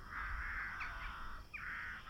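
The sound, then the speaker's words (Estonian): Several crows caw harshly in a steady, overlapping chorus for about two seconds, loud, with no talking, as they take flight from spruce treetops, startled by a door slammed shut with a bang. “ta lõi ukse kinni sellise pauguga, et varesed tõusid kuuselatvadest kraaksudes lendu”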